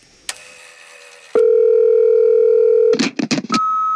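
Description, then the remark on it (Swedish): A Zoom call's outgoing ringing tone: a steady electronic hum held for about a second and a half, then a quick cluster of blips and a higher sustained beep, loud with no talking. “utan jag tror att vi ska ta och zooma upp, eller vad säger man? Zooma, zooma in, zooma, zo, ringa, ringa, eh, zooma vi...”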